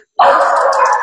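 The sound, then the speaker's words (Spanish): Dogs barking loudly, a sustained burst of noise that starts abruptly after a brief silence and carries on steadily to the end, with no talking over it. “Perdón por mis perros.”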